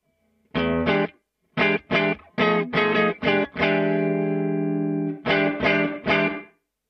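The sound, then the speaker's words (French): Electric guitar played through a tweed-style preamp pedal with a setting turned fully to zero: a run of short, punchy chord stabs, one long ringing chord, then three more stabs, with a warm, slightly gritty tone and no voices. “Je peux vous le faire le son euh, complètement à zéro.”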